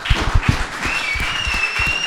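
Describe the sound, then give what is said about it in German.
A short burst of applause from a small group for their cameraman, dense irregular clapping that stays fairly steady throughout, with a faint whistle-like tone running above it. “machen wir mal einen Applaus”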